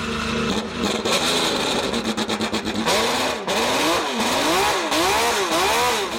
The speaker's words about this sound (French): En 1965, Honda entre dans l'histoire en remportant son premier Grand Prix en F1. Victoire de Richie Ginter à bord de la Honda RA 272 et son merveilleux V12.